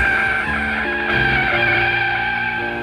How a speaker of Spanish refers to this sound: Pero, de repente, sin saber por qué otro automóvil se cruzó abruptamente en el camino. El taxista, para no causar una tragedia, tuvo que girar el auto y frenar abruptamente.